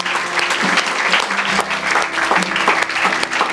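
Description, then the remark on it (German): A church crowd applauds steadily as thanks to the church's volunteers, a dense wash of many hands clapping at a consistent loudness for several seconds without pause. “Einen dicken, fetten Merci-Applaus geben.”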